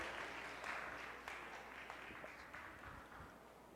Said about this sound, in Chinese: 好，我们再用热烈的掌声来欢迎他们，再用热烈的掌声来欢迎他们，感谢神。